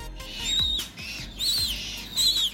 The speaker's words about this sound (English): that's the sound of five baby Humboldt penguin chicks who've been born at London Zoo. Keepers there have been busy looking after them after their parents were unable to care for them.